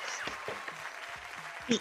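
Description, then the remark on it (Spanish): A short burst of scattered hand clapping, a dense crackle of many quick claps with a brief louder flourish at the end, with a voice faintly mixed underneath. “un abrazo, un aplauso.”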